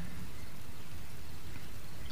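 Steady rain falls on a swamp, a dense, even hiss of countless drops with a low rumbling undertone, continuous, with no voices.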